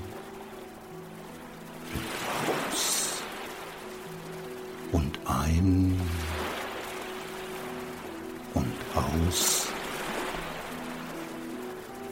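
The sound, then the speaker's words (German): Soft ocean waves roll onto a sandy beach in the distance on a warm day with the sun high in the sky, washing in and receding with a steady hiss and swelling gently twice, while a calm voice speaks quietly over the surf. “In der Ferne hören wir das Meer leise rauschen. Sanfte Wellen rollen auf den Sandstrand.”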